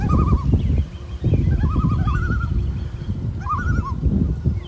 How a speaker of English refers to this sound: Common loon, Rice Lake, Wisconsin.